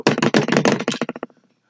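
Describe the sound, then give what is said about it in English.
Someone bangs rapidly on the window of a third-floor apartment: a fast flurry of about fifteen hard, sharp knocks that grow quieter and trail off at the end, with no voices. “Somebody, that's not somebody banging on the door. That's somebody banging on the window.”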